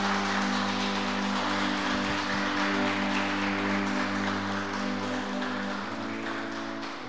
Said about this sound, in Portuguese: Pode aplaudir ao Senhor por isso? Pode aplaudir.